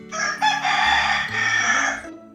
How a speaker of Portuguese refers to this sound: O galo cantou. Ele veio avisar. Está na hora da leitura.